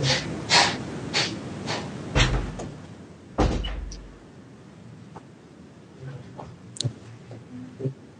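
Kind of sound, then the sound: household object, door opening or closing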